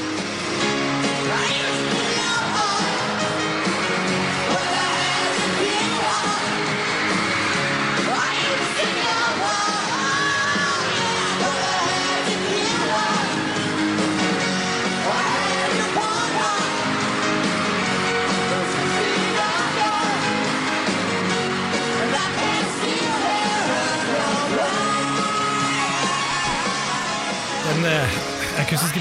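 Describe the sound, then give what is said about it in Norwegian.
A live concert recording from the last concert a band played together before splitting up in 1993 plays loudly and continuously for the whole stretch, with raw yelling voices and audience cheering blended into the dense, full-band music. “Det er et fantastisk klipp av han fra den siste, siste mm, konserten de spilte sammen, uh, før de la, la henne årene i 93, i hvert fall liveversjonen, og, og kan høre litt på den.”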